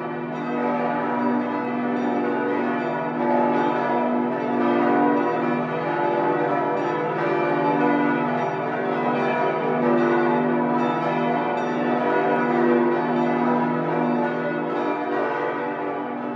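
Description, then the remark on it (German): The 16 bells of the Lorenzkirche (St. Lorenz church), all installed after the war, ring together in their full peal, a dense, continuous sound whose bright overlapping tones and shimmering overtones form a steady, loud wash of sound with no pauses and no voices. “Mit ihrem hellen Klang machen sie das unverwechselbare Gesamtgeläut der Lorenzkirche aus mit insgesamt 16 Glocken.”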